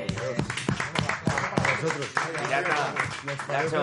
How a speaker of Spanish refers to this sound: Oye, le damos un aplauso